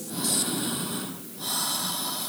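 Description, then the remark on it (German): Slow, steady breathing through the mouth, one long airy breath flowing straight into the next with no pause between inhale and exhale, and no talking. “was hilft, ist einfach langsam einzuatmen und langsam auszuatmen und alle Pausen wegzutun. Also keine Pause mehr zwischen Rein- und Ausatmung.”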